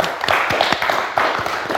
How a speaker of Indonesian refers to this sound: Oke, okay. terima kasih sekali lagi boleh tepuk tangan untuk Luna Maya.